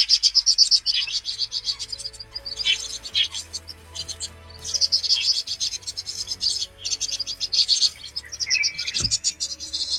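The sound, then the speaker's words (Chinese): A flock of about twenty vinous-throated parrotbills, flitting quickly from tree to tree, keeps up a busy, overlapping chatter of thin, high twittering calls in repeated bursts, with a faint low hum running underneath. “它从一棵树飞到另一棵树，跳来跳去，速度非常快，啊，听起来声音也很好听。”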